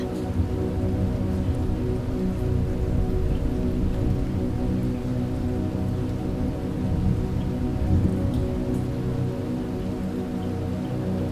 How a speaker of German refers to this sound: Plötzlich beginnt der Himmel hell zu leuchten. Blitze zucken quer über die Wolken hinweg. Ein wahres Blitzlichtgewitter lässt die Nacht zum Tag werden. Jetzt fängt es auch an zu donnern.